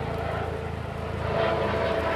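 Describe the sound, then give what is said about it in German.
A helicopter drones overhead, a steady, fairly loud low thrumming with a broad engine roar that swells slightly toward the end as it passes. No voices are heard. “Wir lassen den Hubschrauber kurz vorbeifliegen.”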